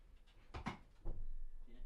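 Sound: door being closed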